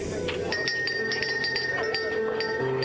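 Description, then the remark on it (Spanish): A waitress sets a glass of water on a table in front of a boy in an eatery, the glass clinking against the surface several times in quick, uneven succession, bright ringing taps over a low steady hum, moderately loud. “La mesera puso un vaso con agua enfrente de él.”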